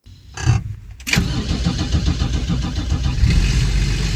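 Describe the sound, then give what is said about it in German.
A VW LT28 camper van's engine cranks briefly, catches with a burst, then settles into a steady, throaty idle with a rhythmic air-cooled chug, fairly loud, no voices. “Wir hören denn jetzt hier schon im Hintergrund die Verwirklichung deines Traums.”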